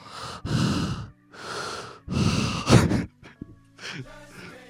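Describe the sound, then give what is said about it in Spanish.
A voice imitates someone panting at a cosplay stand at Comic Con: four or five loud, breathy huffs in a quick, uneven rhythm, ending with a few shorter, ragged breaths. “Y a veces me cruzo a alguno de ustedes que está justo en un stand de cosplay, jadeando.”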